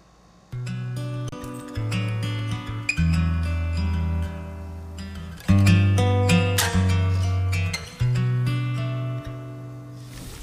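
A song plays loudly with no talking over it, sung melodic lines held over steady low accompaniment, the phrases rising in clear bursts every couple of seconds.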